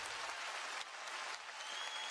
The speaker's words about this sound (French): Être sous les projecteurs, avec tous les yeux rivés sur elle, l'assemblée qui l'applaudit à chaque phrase, vraiment pas son truc.